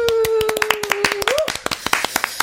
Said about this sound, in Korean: 박수!